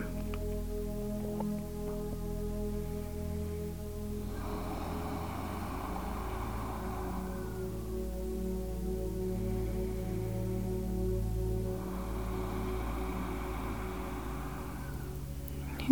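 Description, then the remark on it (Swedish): Two long, slow hissing exhalations with air pressed through a constricted throat and out through the nose, each lasting several seconds with a pause between, over a steady low background hum. No talking. “Och när du gör det så kommer du att höra ett, ett väsande ljud.”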